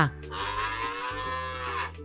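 A cow lets out a long, loud moo lasting about two seconds, a steady low harmonic bellow with no one talking.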